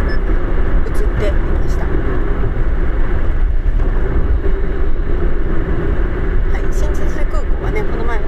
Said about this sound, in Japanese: 私がバイクを借りた、えー、バイクのレンタル屋さんの近くにしてねああこの辺バイクで走ったなーってちょっと懐かしく思いながら今ね車で走っているところです